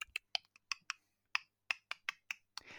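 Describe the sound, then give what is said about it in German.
A person imitates the clacking of spider legs with a quick series of about a dozen sharp, dry clicks in an uneven rhythm, fairly loud, with no talking. “Also, wenn, wenn die ankommen, erstmal wie die Beine da daraus, allein schon dieses Klacken, was man vorher so”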